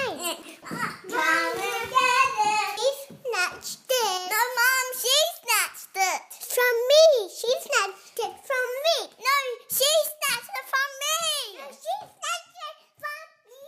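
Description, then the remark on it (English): Two young siblings, aged three and five, overlap in rapid, agitated back-and-forth with high-pitched voices, loud, with shrill rising shouts of "Hey, it's mine! No, it's mine!" that sound like a heated squabble. “I have a three year old and a five year old, and we are deep in the sibling rivalry wars.”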